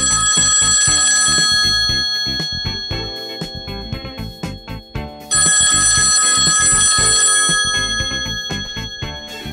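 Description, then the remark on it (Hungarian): A telephone rings loudly in two long bursts of rapid, metallic bell trilling, separated by a short pause, with no voices. “De most annyi idegen szót mondtam ki, hogy még mielőtt tovább szomorkodnék, mint az eső áztatta zászló, felhívom az okostelefont, hogy kitisztázza az előbb elhangzottakat.”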